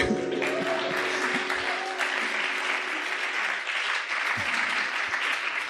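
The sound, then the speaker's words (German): Sustained audience applause fills the space, a dense wash of many hands clapping at steady loudness throughout, with a faint tonal hum lingering underneath at the start. “Applaus”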